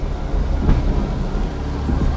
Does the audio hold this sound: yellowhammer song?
no